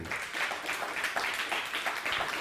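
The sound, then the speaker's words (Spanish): Audience applause fills the whole stretch as a greeting to viewers across Mexico watching on YouTube and Facebook, a dense, steady wash of many hands clapping at moderate loudness with small rhythmic swells, no voices standing out. “Saludos a todo México también, un fuerte aplauso a todo México.”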